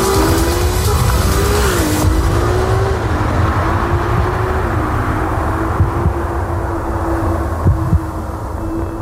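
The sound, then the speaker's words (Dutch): A Ferrari 296 GTB sports car, the brand's newest model, revs its engine loudly and steadily, its pitch rising, dipping and climbing again in smooth sweeps, with a broad hiss that fades after the first couple of seconds. “Het merk onthulde gisteren het nieuwste model, de 296 GTB.”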